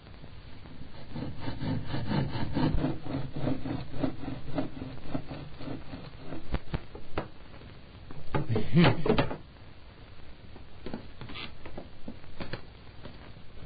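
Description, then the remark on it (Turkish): A hand saw rasps through wood in quick, steady back-and-forth strokes, followed by scattered scraping, knocks and a brief voice. “Ve bakayım tulumcuğum şu testereyi.”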